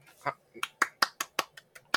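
A quick run of about eight or nine sharp hand claps in a fairly steady rhythm, each a crisp, bright smack, close and moderately loud with no voices over them.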